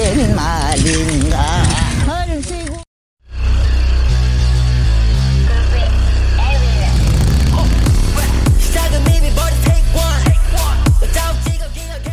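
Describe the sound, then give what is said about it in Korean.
A power tiller engine chugs loudly and steadily, with a rhythmic low rumble that runs on for about nine seconds after a brief stretch of voices and a short silence; from a video of elderly farmers driving dozens of power tillers across tidal mudflats in Seosan, South Korea. “이 할리 데이비스를 능가하는 경운기의 엔진 소리 나의 심장이 살아난다.”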